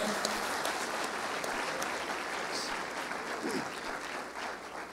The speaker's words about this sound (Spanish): ¿Por qué no le das un aplauso a ese Dios fiel que servimos?